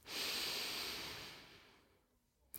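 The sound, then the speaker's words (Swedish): A single slow, deep breath, airy, swelling quickly then gradually fading away over a couple of seconds, with no talking around it, taken during a guided breathing exercise. “Och bara andas långa, djupa andetag.”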